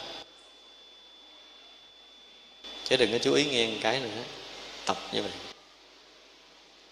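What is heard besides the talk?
electric fan whirring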